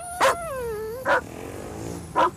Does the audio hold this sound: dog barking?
yes